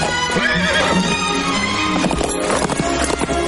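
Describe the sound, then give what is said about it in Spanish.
A horse carrying a rider gallops with rapid, loud hoofbeats, then lets out a shrill neigh as it pulls up abruptly. There is a dense, busy background throughout. “pero se da cuenta de que alguien a caballo se acerca y se para en seco.”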